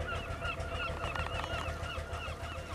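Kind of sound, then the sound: bird, seagulls calling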